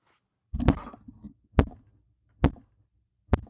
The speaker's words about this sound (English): That's me hitting my head into my fucking microphone. That's what that sound was.